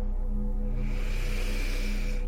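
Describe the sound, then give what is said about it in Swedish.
A long, steady breath drawn in, a soft airy rush that swells slightly over about two seconds, fairly quiet, with a low hum beneath and no talking. “Andas in.”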